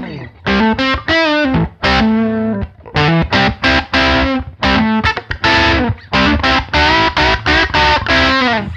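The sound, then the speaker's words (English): Overdriven electric guitar played through a Tube Screamer-style fuzz pedal, with a gritty, saturated fuzz tone, plays a string of loud strummed chords and short riffs, with brief pauses between phrases and no talking. “so this is kind of like a, a, uh, a take on your tube screaming, screamer style kind of fuzz.”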